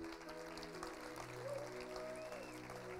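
A standing audience claps for the Lord together in a steady, sustained wash of applause, with faint sustained tones and a brief rising whistle-like pitch drifting through the dense patter.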